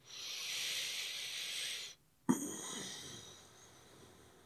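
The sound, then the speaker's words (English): Forceful bhastrika bellows breathing, a breathing pattern within the sudarshan kriya practice: a long, loud hissing breath, a brief pause, then another sharp, powerful breath that gradually trails off. No talking. “there are practices which i do you know there's sudarshan kriya and within sudarshan kriya there's this particular breathing pattern called bhastrika”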